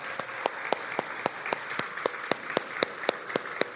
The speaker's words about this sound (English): And if your name is on this and if you've completed membership, I'd like you to stand and I'd like us to clap for them. So, all these people, you could stand up. Come on, people, clap your hand. There we go.